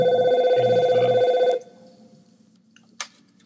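A loud, steady electronic phone ring with a warbling tone sounds for about a second and a half, then cuts off abruptly, leaving quiet room noise and a brief faint click.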